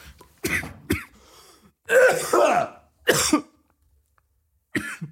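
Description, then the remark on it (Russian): A person coughs in a string of rough, throaty bursts, about five in all, spaced irregularly with one longer hacking fit in the middle, with no talking. “Ты думаешь, что если ты покуришь, кашель пройдет?”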